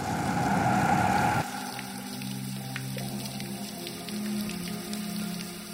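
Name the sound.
water running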